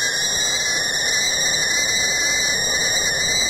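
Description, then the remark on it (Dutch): A kettle of water boiling, its whistle a steady, loud, shrill high-pitched tone with layered overtones that holds unbroken for the whole few seconds, with no voices over it. “Ah, sorry, mijn water kookt.”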